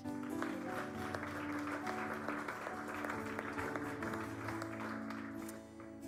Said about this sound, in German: Und vor allem, wenn ihr heute zum ersten Mal hier dabei seid, hey, dann ist dieser Applaus nur für euch.